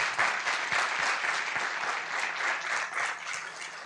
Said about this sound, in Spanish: Un aplauso a Dios por cada uno de ellos.